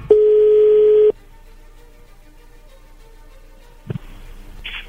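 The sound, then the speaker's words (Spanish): A single steady ringback tone sounds over a phone line for about a second as a call is being placed, followed by a quiet gap of faint line hiss before another brief burst of sound begins near the end. “Bien, a ver, vamos a, vamos a marcarle, no haga ruido, por favor.”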